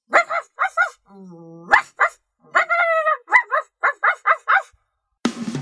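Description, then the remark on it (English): A dog named Rover, newly moved into the city, barks at people on the street in quick bursts of short, sharp yaps, with a low drawn-out whine partway through, then ends in a sudden rush of noise. “He chased dogs and cats, ruined flowers and lawns, and barked at people on the street.”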